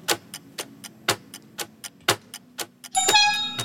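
bell ringing

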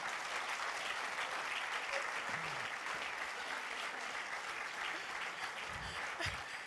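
audience applause

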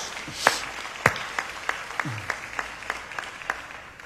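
audience applauding

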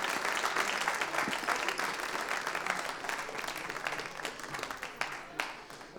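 audience applause

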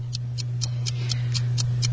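ticking clock timer

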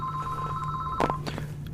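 telephone ringing

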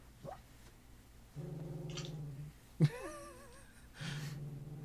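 dog whimpering

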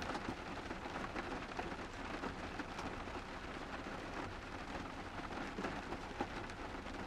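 rain falling

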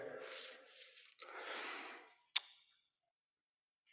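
alternate nostril breathing

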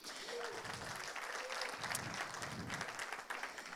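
audience applause

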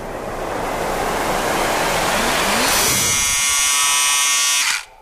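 electric shaver buzzing

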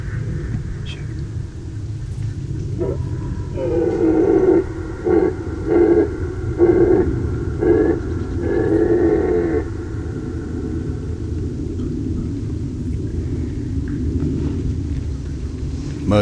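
red deer stags roaring

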